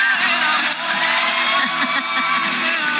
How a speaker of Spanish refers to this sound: antes de que le demos, bueno, un aplauso para el amor, ¿no?